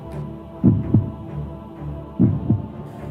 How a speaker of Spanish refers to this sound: Dos latidos, tres, cuatro. Al quinto latido abrió los ojos.